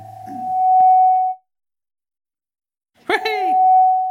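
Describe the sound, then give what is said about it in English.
A clear, steady whistled note holds for over a second, then stops; after a pause of silence a second sustained whistle starts with a brief burst and carries on to the end. “That's not me whistling. Although, I wish I could whistle like that.”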